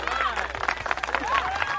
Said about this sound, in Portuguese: eu quero mais aplausos.